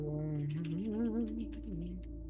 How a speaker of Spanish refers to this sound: Ay, ah, qué rico suena ese teclado. ¿Es mecánico? Sí, es, este es el de mi esposo, el mío lo tiene ahí. El mío no suena, güey.